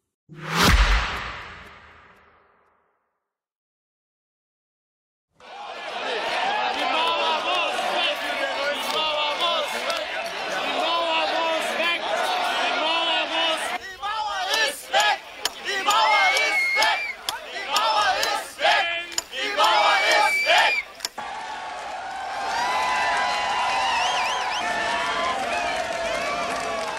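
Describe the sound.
A brief thump fades into silence, then a large crowd of Germans in Berlin erupts as the Berlin Wall falls on a cold autumn night, 9 November 1989. The sustained, dense cheering and shouting carries on loudly, with many overlapping voices, until the end.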